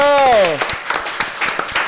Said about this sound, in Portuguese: Uma salva de palmas, produção!